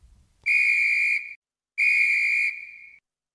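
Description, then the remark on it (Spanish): A referee's whistle blows the double signal for the end of a match: two long, shrill, steady blasts separated by a short pause, the second trailing off slightly longer. Loud and alone, with no voices. “Porque, en fin, vamos a intentar sacarnos con un poco de humor con el doble pitido de final de partido que suelen hacer los árbitros para decir que hemos llegado al final del la grana.”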